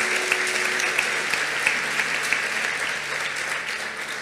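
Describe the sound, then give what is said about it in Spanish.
Sustained audience applause, a dense, steady wash of clapping with a few sharper individual claps standing out, holding fairly loud throughout and tapering only slightly at the end. “Dale un aplauso fuerte Fuerte, fuerte, fuerte, fuerte.”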